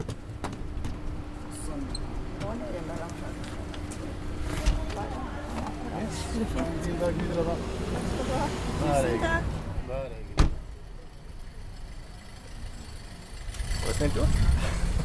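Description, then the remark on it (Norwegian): Metallic clatter and shuffling as a man folds an elderly woman's rollator and places it in the back seat of a car, ending in one sharp thump near the middle, with people talking quietly throughout. “Han går bort for å tilby seg å hjelpe, og når den eldre damen har kommet seg på plass i bilen, pakker han rullatoren sammen og plasserer den i baksetet.”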